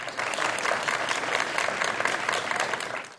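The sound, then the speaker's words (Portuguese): Sustained applause from a group of people celebrating a 99-year-old Brazilian Army veteran's recovery from coronavirus, a dense, steady clatter of many hands clapping at once for about three seconds, loud, with no voices standing out. “Foi assim, com a farda no colo, os braços erguidos em comemoração e muitos aplausos.”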